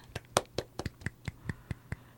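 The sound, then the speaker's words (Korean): A single person claps their hands about ten times in a steady, moderately quick rhythm, each clap sharp, with no talking in between. “네, 박수친”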